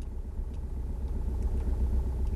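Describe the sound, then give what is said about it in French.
A car engine runs steadily, a continuous low rumble with an even, droning tone and no voices over it; the car a boy is persuaded to board, in the small town of Sainte-Suzanne. “Il le convainc de monter à bord d'une voiture.”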